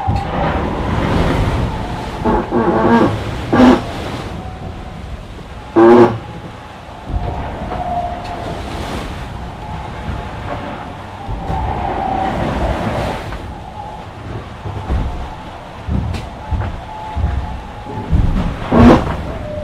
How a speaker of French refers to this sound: Et euh, la mer elle est un peu dans tous les sens parce qu'on vient de, le changement de vent. C'est pas la grosse houle euh, qu'on voit dans ma Mali c'est plutôt machine à laver un petit peu.